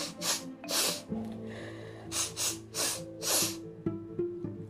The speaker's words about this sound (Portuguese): O chefe dos monstros, emocionado, assoava o nariz numa grande folha de carvalho.